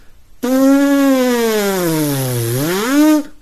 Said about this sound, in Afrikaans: So die konsep eintlik van koperblaasinstrumente is is ons maak ons praat soos van die bye, ons maak 'n buzzing klank met ons lippe.